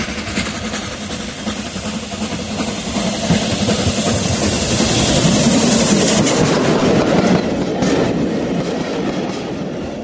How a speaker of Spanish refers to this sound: Después de 28 años de inactividad, el ferrocarril Belgrano Sur llegó nuevamente a Marcos Paz.